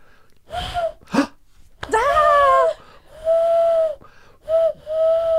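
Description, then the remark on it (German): A person imitates an owl with a series of breathy, drawn-out vocal hoots, some short and some held, delivered fairly loud with brief pauses between them. “Ähm, und dann gibt es Eulen. Und die machen.”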